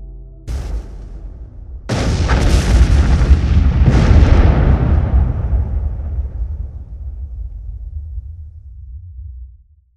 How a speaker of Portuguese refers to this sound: E vocês ouvem uma grande explosão vindo da da fábrica.